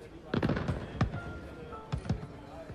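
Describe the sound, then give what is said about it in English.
Fireworks crack and pop in quick irregular bursts, several sharp bangs clustered early and again near the end, with murmuring voices underneath, at a New Year's Eve 1958 celebration at the Havana Yacht Club in Havana, Cuba. “I mean, it's like they're at their club, they're the fireworks.”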